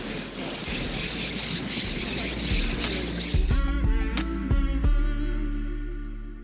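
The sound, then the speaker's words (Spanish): Steady splashing water from a fountain runs throughout, and midway through a flock of parakeets in a tree breaks into harsh, squawking chatter, layering over the rushing fountain. “Lo que escuchás seguramente, si se escucha, son las cotorras un árbol y una fuente.”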